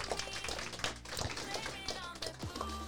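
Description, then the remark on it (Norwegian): An audience claps continuously to welcome two guests up, a dense, steady patter of many hands, with faint voices mixed underneath. “En stor applaus.”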